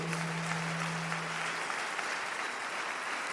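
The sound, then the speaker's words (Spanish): A crowd applauds steadily at a convention, a dense, even wash of many hands clapping at constant loudness, with a low steady hum underneath for the first part. “desen un fuerte aplauso de bienvenida a esta convención.”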